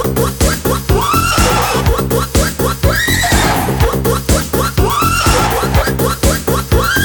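A horse neighs and whinnies repeatedly, loud, shrill, quavering cries that rise and fall in rapid pulses, filling the whole stretch without pause and with no talking.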